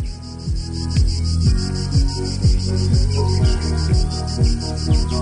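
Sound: cicada chirping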